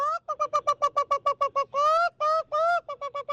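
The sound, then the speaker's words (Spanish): A person imitates a clucking hen: a quick run of short, clipped clucks, then a few drawn-out squawking calls, ending with more rapid clucks. “Es que ustedes cómo le dicen a la gallina las culecas.”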